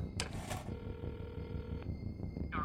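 Someone dials the number of a person they know well on a landline phone beside a notepad and a computer screen: a couple of handset clatters, a steady electronic tone held for about a second, then brief faint beeps. Fairly quiet, with no talking.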